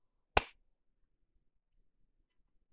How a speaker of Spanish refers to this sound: Eres la única que va a aplaudir.